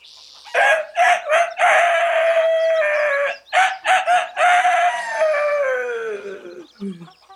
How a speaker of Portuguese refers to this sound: Na cena 1, um, amanhece. E Pai Galo acorda sua filha.